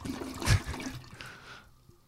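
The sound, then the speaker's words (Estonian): A toilet flushes: a sudden loud whoosh of rushing water that swirls and drains away over a second or so, fading into quiet gurgling. “ah, näe, situn su peale samal ajal, kui ma vett alla lasen.”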